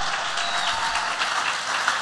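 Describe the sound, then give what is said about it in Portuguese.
An audience applauds loudly and steadily in praise of the Lord, a dense wash of many hands clapping together throughout, with no voices rising above it. “Forte esse aplauso ao Senhor.”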